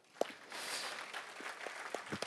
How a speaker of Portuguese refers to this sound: Aplauda o Senhor aí, cara.